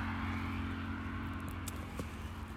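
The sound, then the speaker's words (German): Steady low rumble of road traffic, many cars driving past in a continuous wash of engine and tyre noise, a couple of brief sharper clicks near the end, no talking. “Jetzt kommen hier aber auch schon wieder viele Autos.”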